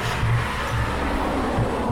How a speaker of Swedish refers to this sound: Nu kommer en bil till här.